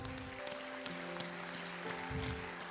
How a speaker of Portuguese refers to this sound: Dá glória a Deus bem forte. Glória aqui. a Deus. Aplaude ele, aplaude.